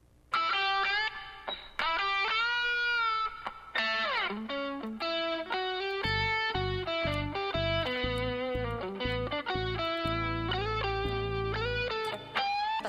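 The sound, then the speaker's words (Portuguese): The theme tune of the Brazilian children's TV series Castelo Rá-Tim-Bum plays loud and alone, bright and bouncy, its synth melody gliding up and down, with a punchy, pulsing bass line kicking in halfway through. “Então, com esse hino atemporal, quando a gente ouve essa música, lembra de que?”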